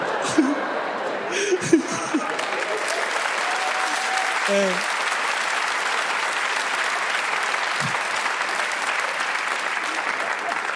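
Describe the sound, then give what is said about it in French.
Sustained audience applause for a joke fills the whole stretch as a dense, steady wash of clapping, with a few brief voices and chuckles poking through near the start. “Vous avez applaudi ça”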